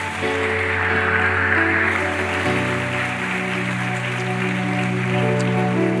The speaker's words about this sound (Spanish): De un aplauso al Señor.